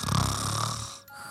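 A person snores once, a close, rumbling inhale with a gravelly low buzz that lasts under a second before trailing off into quiet.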